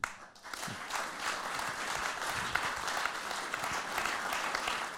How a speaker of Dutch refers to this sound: als tweede mag ik een warm applaus voor Hella Huuk